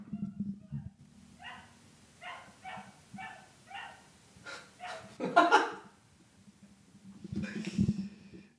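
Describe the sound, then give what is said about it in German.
A dog in the background lets out a series of short, evenly spaced yelps, then a louder drawn-out howling cry, followed by another whining bark, all over a low steady hum. “Hört ihr eigentlich den Hund gerade im Hintergrund?”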